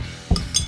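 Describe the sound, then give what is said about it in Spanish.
Glasses clink together in a toast, two bright, ringing taps in quick succession, fairly loud, with no voices. “Salud.”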